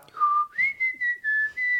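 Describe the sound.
A person whistles a 1999 Eurovision song melody, clear, with a low held note rising to a higher sustained pitch in several phrased pulses, no talking.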